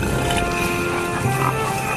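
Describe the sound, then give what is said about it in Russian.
Pigs grunting and snorting in a steady, overlapping chorus, fairly loud, with no pauses and no talking over them. “Привет вам, братцы-свинки!”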